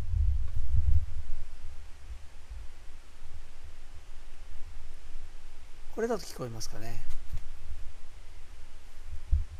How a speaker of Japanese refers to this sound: これね沢の音なんですよここあの三方あのいわゆる南秋川の渓流に囲まれたところちょっとそこでこんもりしてる山の上なんですけど